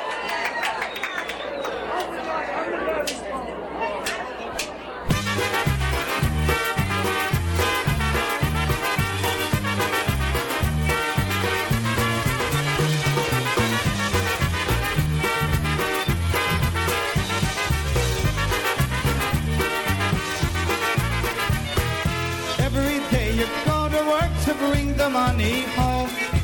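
A few seconds of crowd chatter give way to a loud, lively polka tune with a steady bouncing oom-pah beat and bright accordion-like melody that continues without pause.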